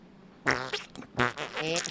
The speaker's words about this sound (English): You farted, mate. Yep, I farted on you.